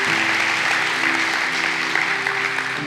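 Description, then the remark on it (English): An audience at a church service applauds steadily after a prayer, giving thanks to God: a dense wash of many hands clapping together at a fairly loud level, sustained without pause and with a low background hum underneath. “And can we give God some thanks for the, appreciate those that prayed that prayer this morning.”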